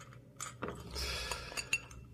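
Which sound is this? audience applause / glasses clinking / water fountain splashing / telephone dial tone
glasses clinking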